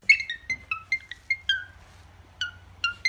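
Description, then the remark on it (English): A cockatiel named Sonny whistles an imitation of the Apple iPhone ringtone: a run of bright, clipped, high-pitched notes in a bouncy melodic pattern, with short pauses between phrases and no talking. “This is Sonny, who's a cockatiel. He performs the Apple ringtone.”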